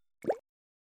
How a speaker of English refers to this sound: This is the sound of regular water droplets